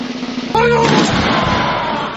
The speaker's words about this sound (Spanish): Se escucharon unos redobles y finalmente los disparos.